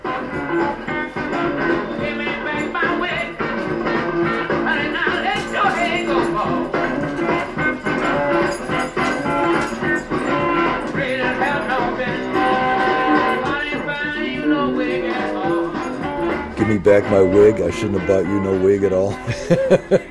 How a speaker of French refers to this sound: He always said, uh, I don't know how to play shit, I just make it sound good. Il y avait des Larsen, il y avait des guitares et des amplis pourris, mais ils s'en foutaient du moment que ça sonnait bien.